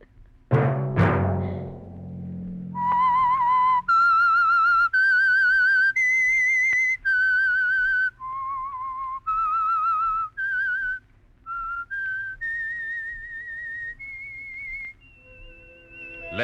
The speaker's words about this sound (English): that whistle be your signal for the Signal Oil program, The Whistler, each Monday at 9.